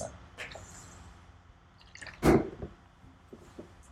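A person takes a wet sip of a drink, with one louder gulp in the middle and a few small liquid clicks and mouth sounds before and after.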